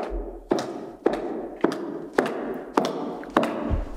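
High-heeled shoes clack across a hard floor in a steady walking rhythm, about eight sharp steps, each leaving a short echoing ring, with no one speaking.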